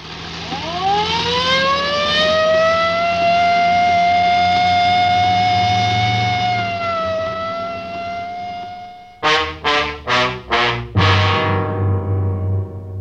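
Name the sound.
police car siren wailing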